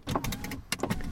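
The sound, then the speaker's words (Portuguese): A car's automatic power window whirs briefly as it opens and closes, a short motorized hum with a couple of quick mechanical stops, with no one speaking. “Não sei se estão a par de, deste tipo de som, mas é um vidro uh, automático a abrir e a fechar.”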